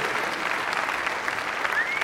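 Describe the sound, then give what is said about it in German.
A steady wash of audience applause fills the whole moment, dense and even with many hands clapping at once, fairly loud and continuous without pause. “Ich glaube wir wirklich, dafür mittlerweile Applaus bekommen.”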